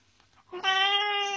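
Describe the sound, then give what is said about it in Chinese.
A frightened pet cat lets out a single loud, drawn-out meow with a strained, wailing tone, rising out of near silence and holding steady for almost a second. “呃，我家猫，不好意思，我家猫吓着了。”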